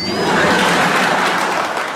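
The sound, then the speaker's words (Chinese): A steady burst of clapping from a crowd in praise of the Chaoyang masses, dense and loud, a continuous crackling patter that holds evenly for about two seconds with no voices over it. “此处应该有掌声，必须呱唧呱唧。”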